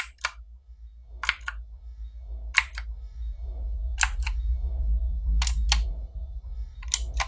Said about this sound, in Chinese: 他打开灯，打字机的键盘上上下下的动着，仿佛有个看不见的人影在操作似的。